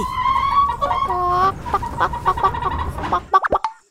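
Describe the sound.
A voice imitates a chicken: a few drawn-out, wavering squawks followed by a quick run of short, choppy clucks, fairly loud, with no talking.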